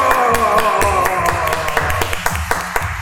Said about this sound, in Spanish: ¡Aplausos!